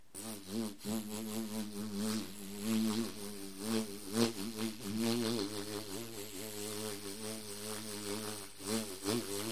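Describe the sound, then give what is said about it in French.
A bumblebee buzzes steadily for several seconds, a low droning hum that wavers in pitch and loudness as it moves, with no voices over it. “Et le bourdon.”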